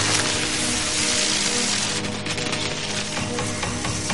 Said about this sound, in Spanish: Baterías y cables chisporrotean.